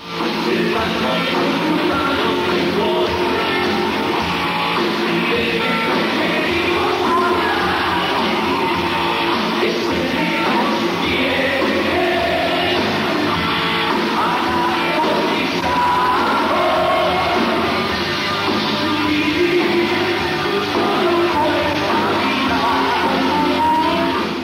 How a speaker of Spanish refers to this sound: Esta grabación no tiene buena calidad, pero vale la pena escuchar este rescate de cómo sonó la banda esa noche del 20 de octubre de 1989.